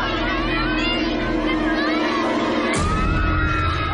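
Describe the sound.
A crowd of people at a birthday party in a film scene screams and shouts together as an alien appears, loud and continuous for the whole stretch, with many overlapping voices and a brief shift in tone near the end.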